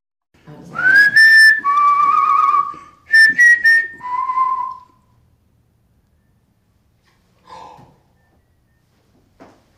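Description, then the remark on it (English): Loud human whistling in a few bright sliding phrases, with rising and falling pitches over the first five seconds, then near silence broken by a couple of faint brief notes. “This is uh, me whistling in this thing, responding back to it.”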